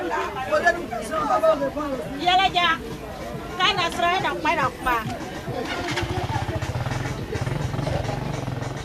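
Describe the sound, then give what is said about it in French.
A busy outdoor market crowd, where food, basic necessities and clothing are sold, chatters with many loud overlapping voices, and partway through a low engine rumble starts up beneath the babble. “Nous marchons quelques mètres de plus pour sortir de son périmètre et déboucher dans l'actuel marché où l'on vend nourriture, biens de première nécessité et autres objets tels que des vêtements.”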